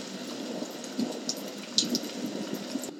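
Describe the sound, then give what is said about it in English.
Water splashing and churning steadily as giant waves break over people on a paddleboard at sea in wind and rain, with a few sharper slaps standing out over the continuous rush. No one speaks. “The wind and the rain picked up and giant waves were splashing over them.”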